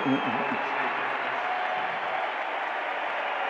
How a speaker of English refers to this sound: Crowd kind of semi booing, semi cheering.